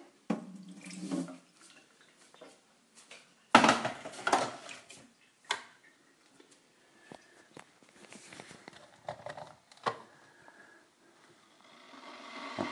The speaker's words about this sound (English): pour the old water, the much too well boiled water, out of the kettle. Don't fill the kettle.